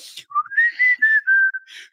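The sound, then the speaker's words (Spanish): A person whistles a short melodic tune, a series of clear sustained pitched notes gliding up and then holding steady, moderately loud with brief breathy gaps between phrases. “Súper relajado, chiflando. está, literalmente chiflando, está literalmente chiflando.”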